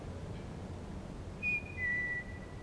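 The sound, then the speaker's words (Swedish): Two short, high whistle notes in quick succession, the second slightly longer and dipping in pitch, heard faintly against a low rumbling background with no talking, outdoors near a cabin in the dark amid gusty wind. “En, en vissling? Ja, ja det var det.”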